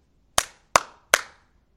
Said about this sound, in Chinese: 啪啪啪这么一拍门，等了老半天的功夫，里头没动静。